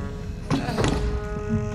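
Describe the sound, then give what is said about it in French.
A sailor at an inn falls from his full height face-down onto the ground, struck by sudden apoplexy: a heavy, dull thud followed quickly by a second muffled impact, then a low steady hum continues. “puis tomber de toute sa hauteur face contre terre.”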